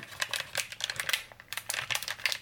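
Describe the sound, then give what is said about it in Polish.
Crisp, crackly rustling of a brewing sachet's foil packaging being handled and torn open by hand, in a steady run of brittle crinkles with brief pauses, and no voices. “Saszetka jest w takim opakowaniu po prostu foliowym, które otwieramy.”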